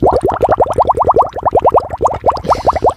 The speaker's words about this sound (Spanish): Eh, pensaron también en un sonido como burbujeante para evocar el océano, las profundidades, esto.